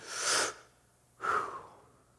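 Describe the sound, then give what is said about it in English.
A voice pronounces the Jewish word for breathing, which sounds like breathing: two airy, breathy whooshes, like an inhale then an exhale, separated by a brief pause, with no other speech. “They, they believed that, that in Genesis, when it said that God breathed His Spirit into us, the, the Jewish word for breathing, it sounds like breathing.”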